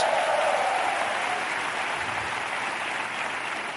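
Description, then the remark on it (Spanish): A church audience, El Lugar de Su Presencia, applauds itself in a steady, dense burst of clapping at an even loudness throughout, with no one speaking over it. “Así es que si ustedes son parte de esta congregación, dense un aplauso ustedes solitos.”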